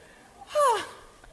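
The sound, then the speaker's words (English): A single short, breathy cough with a voiced, slightly falling tone, lasting a fraction of a second and standing out clearly against quiet background hiss, with no talking. “It's almost like you have to cough when you're telling the prince how gross the candy tastes.”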